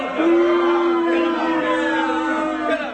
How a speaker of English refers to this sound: Crowd is not pleased.